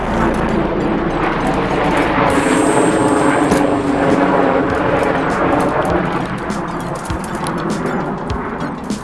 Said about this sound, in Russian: Это пролетающие вертолеты